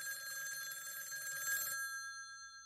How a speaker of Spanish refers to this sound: Sonó el teléfono alrededor de las 11 de la mañana.